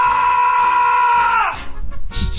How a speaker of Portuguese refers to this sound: você tem que gritar de verdade, não fazer ah, tem que gritar mesmo, com o estômago.